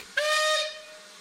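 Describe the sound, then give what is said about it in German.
A single short blast from an ocean steamer's steam whistle: a steady, bright mid-pitched tone wrapped in airy hiss, sounding strongly for about half a second before tailing off. No one speaks. “Dann fahren wir mit dem Luxussonderzug durch die Staaten oder mit dem Ozeandampfer ganz weit weg.”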